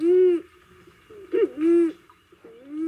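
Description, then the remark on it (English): A recording of a male pigeon's call played in a living room: a few drawn-out, hollow cooing notes, loud, separated by brief pauses, with no talking over it. “In his living room, he plays us a recording of the pigeon's call.”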